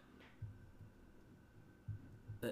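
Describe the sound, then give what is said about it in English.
A low, steady electrical hum from an old refrigerator, with faint uneven throbbing pulses in the bass and a thin constant tone above, quiet. “It's my fridge.”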